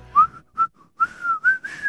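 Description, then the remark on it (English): A person whistles the melody of a song, a short, lilting tune with several sliding notes in quick phrases and brief gaps between them, clear and fairly loud with no talking. “Here comes our highest reentry of the week at number two, and let me try to whistle in the song for you.”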